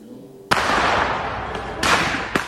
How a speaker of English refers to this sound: And it has been happening across the country, thousands reporting an increase in illegal fireworks going off at all hours of the night.